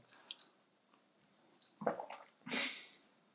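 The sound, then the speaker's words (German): A sip from a drink: a few faint lip clicks, then a wet slurping gulp and a breathy swallow or exhale, moderately loud, with no talking. “Jetzt trinke ich noch einen Schluck, bevor ich zu den Vorteilen komme, sonst überlebe ich diese Folge nicht, sonst huste ich euch alles voll.”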